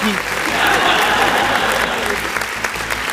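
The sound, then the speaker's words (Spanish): Sustained applause from a crowd as a greeting to the people of Brazil, a dense crackle of many hands clapping steadily at full volume for a few seconds, bright. “Saludos a toda la gente de Brasil, aplausos.”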